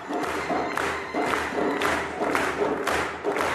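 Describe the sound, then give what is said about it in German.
A large crowd cheers and shouts in rising, rhythmic waves, loud, as a 13-year-old girl drummer from Iran whips up the audience, with swells of excitement pulsing about every second. “Und feuert erstmal das Publikum an.”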